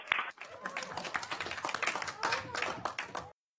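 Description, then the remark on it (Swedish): A small group in a small room claps and cheers with excitement after confirmation of the Ingenuity helicopter's first powered flight on another planet. Dense overlapping hand claps mix with joyful shouts, lively for a few seconds before cutting off abruptly. “Pandemin och allting gör att inte många människor kan samlas. Men de verkar ju väldigt glada i alla fall.”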